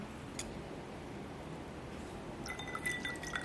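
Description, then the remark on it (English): A quiet liquid plop as a small half slice of orange drops into a Negroni cocktail made with Campari, followed by a few faint glassy clinks and drips over a low background hum, with no talking. “Just maybe yeah, rub it and then just dunk the orange.”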